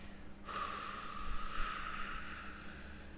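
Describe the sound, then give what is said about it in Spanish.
A long, steady breath pushed out through the mouth over four seconds during box breathing, starting after a brief pause and sustaining as a soft whooshing rush of air with no talking. “Respiramos en, es, esto es como un cuadrado, entonces respiramos en 4 segundos, 3, 4, mantenemos la respiración durante 4 segundos, como si dibujáramos la parte de arriba del cuadrado, exhalamos en 4 segundos”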